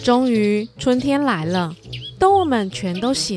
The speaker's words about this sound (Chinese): 哇，春天来了耶！嘿呀，我听到好多小鸟在唱歌了。